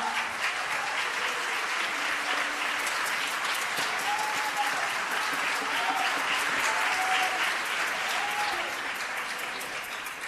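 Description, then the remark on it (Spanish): Steady applause from an audience at the presentation of a newly published work with music. A dense wash of hand claps holds at an even level for about ten seconds, with faint murmuring voices underneath, before it begins to taper off. “un aplauso.”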